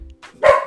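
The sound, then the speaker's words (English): A single sharp, fairly loud bark from a female pet dog called Chicken, preceded by a faint breathy lead-in, with no talking over it. “Sorry, the chicken's barking.”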